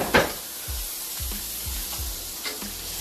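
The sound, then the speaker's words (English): Steady sizzling of meat frying in a pan, a continuous crackling hiss with a few soft clinks and low thumps scattered through it, moderately quiet. “I'm just waiting for the meat to like.”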